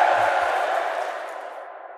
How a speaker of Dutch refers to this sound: En op dat moment stijgt er een enorm gejuich op op de Place Saint-Lambert, waar nog altijd bijna 5000 mensen staan te wachten